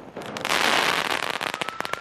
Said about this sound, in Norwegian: Fyrverkeri mot politi.